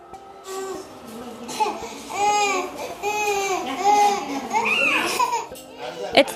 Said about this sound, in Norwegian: sultent barn gråter i et borgerkrigsherjet Jemen, men får hjelp av Verdens matvareprogram.